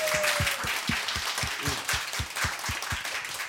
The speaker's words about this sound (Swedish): Tack ska du ha, vad fint. Spontan applåd, underbart.